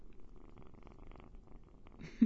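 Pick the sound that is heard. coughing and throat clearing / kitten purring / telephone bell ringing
kitten purring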